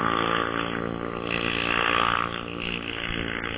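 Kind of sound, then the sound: vehicle, loud motorcycle passing by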